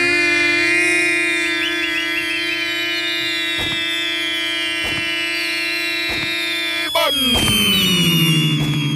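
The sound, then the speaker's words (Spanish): A few sharp gunshot effects, roughly four, crack over a loud, steady electronic alarm-like tone. The tone bends and slides downward after the last shot. No one speaks. “Nueva Rosita, Coahuila, con balazo.”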